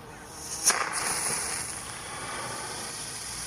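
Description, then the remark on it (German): A flare rocket firework set off by Feuerrotbot, who handles the famous fireworks, launches with a sharp crack, followed by a steady, bright hiss that carries on evenly for a few seconds with no voices. “Der ist für unsere berühmten Feuerwerke zuständig. Aber die Leuchtrakete gerade, die zeigt an, dass unsere Akrobaten eine neue schwere Übung”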